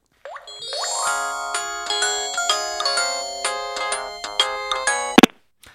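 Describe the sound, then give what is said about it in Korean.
A bright, melodic phone ringtone plays on its own while an AI assistant connects a call, a few seconds of chiming electronic notes in a steady rhythm before it cuts off, as if the call is being connected. “아, 우리 집안에서 지금 돈이 가장 많은 사람한테 얼른 연결 좀 해봐. 바로 연결합니다.”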